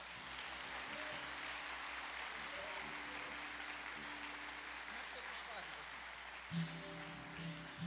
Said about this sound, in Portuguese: Você pode aplaudir ao Senhor, meu irmão?